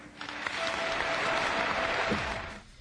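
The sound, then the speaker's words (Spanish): A large crowd applauds steadily, a dense wash of clapping that swells in quickly, holds at an even loudness for a couple of seconds, then tapers off, with a slightly muffled, old-recording quality. Archival applause for Gustavo Díaz Ordaz's 1969 presidential report (informe). “Y pues lo aplaudieron, ya saben, porque en aquella época era importante ser buen aplaudidor para tener buenas chambas.”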